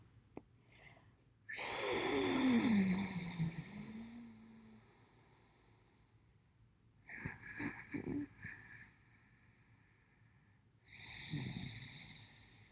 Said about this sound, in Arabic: هاي التقنيات بتشمل تقنية أوجاي تقنية منتنفس فيها بعمق من الأنف عن طريق الحلق مع إصدار صوت بذكر بصوت أمواج البحر